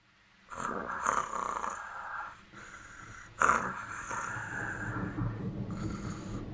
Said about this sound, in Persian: وای دیگه نمیتونم تحمل کنم چقدر این ملخ خور خور میکنه